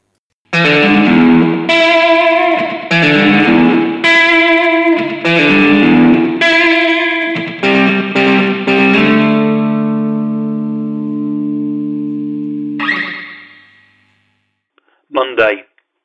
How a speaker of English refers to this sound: Uh, let's kick off and let's have some of that jangly guitar.